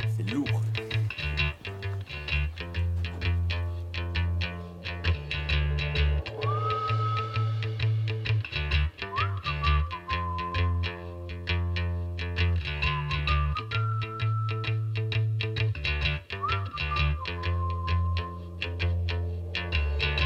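A full-band song plays loud and steady throughout, with a heavy, thumping bass line, effects-laden guitar textures and a gliding lead melody that rises and slides in repeated phrases.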